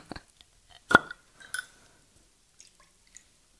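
A short splash of herbal bitter liqueur poured into a glass, with a bright glassy clink and a few soft drips and trickles, otherwise quiet.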